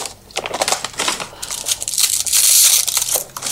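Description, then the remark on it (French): Dry crinkling and crushing of brittle frozen lemon leaves being added to a pot, fairly loud, a continuous crackly rustle that intensifies toward the end with sharp high crackles. “Puis j'y ajoute aussi la feuille de citron qui est surgelée toujours avoir ça.”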